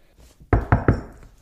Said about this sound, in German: Klopf, klopf bitte nochmal auf Holz. Ich weiß nicht, ob das jetzt aufgenommen wurde, aber wir haben beide auf Holz geklopft, ganz ähm, doll.